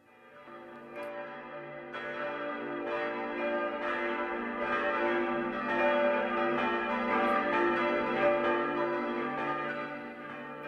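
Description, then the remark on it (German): Church bells ring steadily with overlapping strikes, their rich, humming tones building into a full, sustained peal that swells in loudness and carries on without any voices. “Für die einen bedeutet er Heimat, für andere steht er für den Glauben und für viele ist er wie ein Synonym, Synonym für den Frieden, der Klang der Kirchenglocken in unserem Land.”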